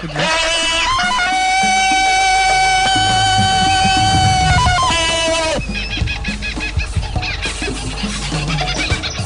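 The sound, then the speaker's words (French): A loud jungle-man yell: one long, wavering yodel-like cry with sudden leaps in pitch, lasting about five seconds, then giving way to a busier, noisier stretch of sound. “tu veux passer Tarzan? oui. Viens de passer.”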